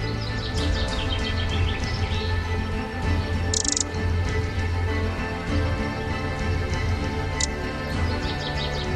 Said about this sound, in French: par la fenêtre de ma cuisine, je regarde le printemps arriver. Les oiseaux continuent de chanter.